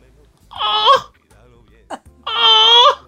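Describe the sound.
A voice mimics the loud, wailing sobs of a man crying on the phone: two long, strained crying bursts separated by a short gasping pause, intense, with no other talk.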